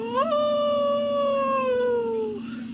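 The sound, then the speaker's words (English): A single long wolf howl rises quickly, then holds a steady, slowly falling tone for about two seconds before trailing off, loud, with no voices. “I hate wolves.”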